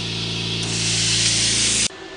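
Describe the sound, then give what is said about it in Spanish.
A continuous, loud hiss of pressurized air and liquid spraying from an airbrush during a jet peel facial, a power-wash exfoliation with air and a very mild acid, over a low mechanical hum. It swells slightly partway through, then cuts off abruptly just before the end. “Ajá, Es una exfoliación con aire y un ácido muy leve para lavar a presión.”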